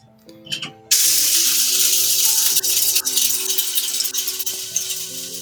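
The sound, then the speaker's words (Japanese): A harsh, steady grinding rattle starts abruptly and runs continuously as whole coffee beans are ground in a grinder at home, with a brief faint tonal hum before it begins. “コーヒーを挽く音”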